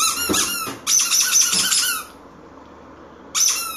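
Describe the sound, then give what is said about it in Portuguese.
A squeaky toy doll squeaks in three loud bursts of rapid, high-pitched squealing, with short pauses between them and a longer quiet stretch before the last burst. No one speaks. “Você tem um boneco de bolota. É que ela fica achando que é um, filhote. filhote chorando.”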